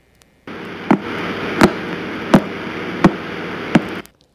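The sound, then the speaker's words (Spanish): A sonified pulsar: five sharp, evenly spaced clicks roughly every 0.7 seconds over a steady hissing noise bed, loud, with no voices; the clicks represent the star's regular flashes of brightness as beams from its poles point toward us, like a lighthouse. “Entonces esto lo podemos representar también con sonidos.”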